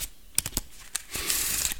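Crisp card sounds of a one-handed shuffle of a deck of playing cards: a few sharp clicks as the deck is split and cut in one hand, then a brief papery rustle as the cards fall back together. No talking.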